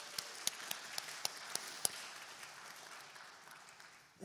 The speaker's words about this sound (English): And uh, so let's again, I actually don't even know all of the volunteers that did that, but let's give them a round of applause for uh, willing to serve.